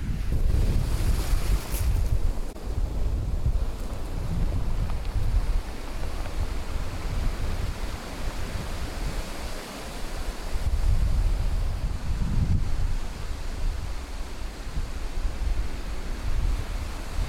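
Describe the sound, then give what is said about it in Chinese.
Ocean waves crash against rocks at a surf spot in Donghe, Taitung, Taiwan, recorded while stepping over the stones before entering the water to surf. A steady, loud roar, with heavy low-end surges swelling and breaking repeatedly, mixed with hissing spray and wind gusts buffeting the microphone. No one speaks. “我现在先给大家听一段我们在海边要下水前踩着石头，然后海浪拍打的声音。”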